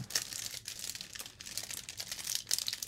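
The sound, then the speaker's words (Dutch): Continuous crinkling of a plastic packet being torn and pulled open, with busy rustling crackles and brief sharper rips throughout, no voices present. “Ik heb hem hoor. Ik heb hem open.”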